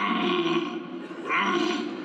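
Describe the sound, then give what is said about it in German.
A man, a competition deer caller from St. Andreasberg in Lower Saxony, bellows a deep, drawn-out imitation of a red deer stag's roar, loud, with a rough guttural tone that swells again partway through. “Und der kann wirklich extrem guten Hirsch nachmachen.”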